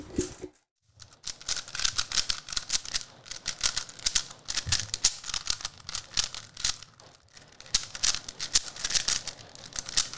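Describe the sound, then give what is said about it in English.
Rapid, continuous plastic clicking and clacking from a 2x2 Rubik's cube being turned at speed during a timed speed solve started on a stack mat, a dense stream of sharp crisp clicks with a brief pause near the start and no talking. “I'm not going to be doing any commentary, so we can hear the sweet clicks of the cube, so I'm going to shush.”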